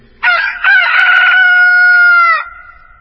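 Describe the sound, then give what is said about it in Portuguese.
A rooster crows once, loud, a harsh opening note breaking into a long, sustained call that drops off at the end, with nothing else around it. “o galo cantou.”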